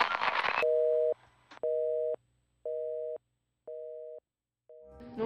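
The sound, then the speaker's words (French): A telephone busy signal after a dropped call on a Bi-Bop mobile phone: five steady, evenly spaced tones with short silences between, loud, preceded by a brief burst of noise and cut off by another at the end. “Non, attends, j'entends je, je, rien, c'est quoi Putain, bipop de merde.”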